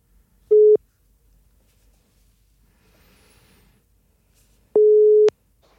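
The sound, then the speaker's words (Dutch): An outgoing phone call's ringing tone: two steady, low electronic beeps separated by about four seconds of near silence, the second one longer. Clear, with no voices. “Ik mag haar bellen voor de podcast.”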